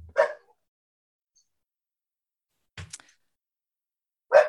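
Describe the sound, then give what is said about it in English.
A dog barks three times, each a short sharp bark separated by a couple of seconds of silence, moderately loud, with no talking. “There's also um, it's a doggy podcast. It's fine.”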